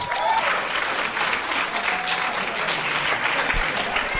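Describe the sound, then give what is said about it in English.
Sustained applause from a standing audience for the competitors, a dense, steady wash of many hands clapping at an even loudness throughout, with scattered faint cheers mixed in. “I want everybody to stand up and give these guys some major applause.”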